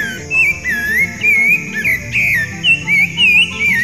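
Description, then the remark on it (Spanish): A thrush sings a string of clear, fluting whistled phrases, each rising and falling in pitch with short pauses between. The song is loud over a steady, low murmuring background. “Pero no, Hugo, es un zorzal.”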